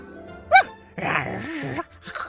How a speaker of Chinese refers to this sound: 桃乐丝的小狗托托对着铁樵夫一直叫，桃乐丝忍不住好奇地走向前去。